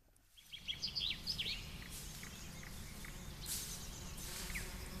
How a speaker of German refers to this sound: Na, wen haben wir denn da? Meine kleinen Honigbienchen, wie fleißig ihr seid. Was schmeckt euch besser? Der Nektar aus den blauen Glockenblumen oder doch lieber Löwenzahn? Hm? Hm? Was summt ihr da vor euch hin?